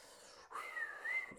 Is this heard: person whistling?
yes